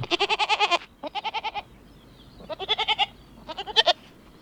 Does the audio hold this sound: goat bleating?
yes